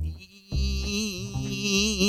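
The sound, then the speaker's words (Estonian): A voice imitates a whining mosquito: a steady, nasal buzzing drone with a slightly wavering pitch, fairly loud for about a second and a half after a short pause. “me kõik oleme suvel, suvel öösel ajanud nagu pimedas toas ühte mingit sääske taga, kes kuskil piniseb, aga, aga me ei saa aru, kus ta on.”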